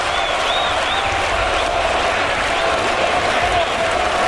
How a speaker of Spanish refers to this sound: Ahí escuchamos Colombia, Colombia.